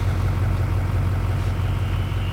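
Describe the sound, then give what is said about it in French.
A ski button tow lift (poma) at a mountain ski slope runs with a steady mechanical drone and low rumbling hum, continuous and even throughout, with a faint metallic rattle blended into the noise and no voices. “Le cliquetis du tire-fesse. Comme ça, là, comme deux fourchettes qui s'entrechoquent sur un fond de machine à laver.”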